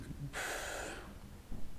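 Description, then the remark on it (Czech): A person imitates blowing their nose, as a café waiter might in front of a customer, with a single loud, breathy snort lasting about half a second, followed by quiet low murmuring. “smrkat naproti klienta.”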